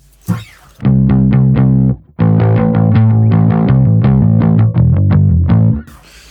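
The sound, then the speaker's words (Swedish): A distorted, overdriven electric guitar plays a quick run of repeated picked notes and chords, loud and gritty with a thick harmonic buzz, before stopping abruptly. “Um, någon slags overdrive har jag här.”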